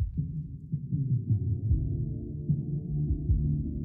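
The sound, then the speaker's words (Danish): Muffled live band music from Ceres Arena in Aarhus as a new band takes the stage, a steady bass-heavy rumble with dull thumping beats and no clear treble, heard through an open window. “Øh, I jeres tilfælde der er det altså Ceres Arena i Aarhus, og øh, der går et nyt band på scenen.”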